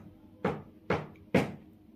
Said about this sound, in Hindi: यकायक किसी ने बाहर के दरवाजे को तीन बार खटखटाया